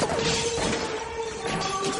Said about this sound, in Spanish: La policía acribilla la casa. Dentro, muebles y objetos caen al suelo.